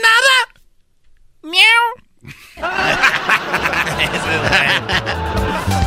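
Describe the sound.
A person imitates a cat with two short, rising meows, a brief pause between them, followed by a burst of lively crowd chatter and laughter.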